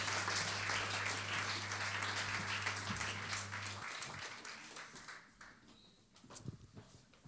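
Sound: audience applause welcoming speakers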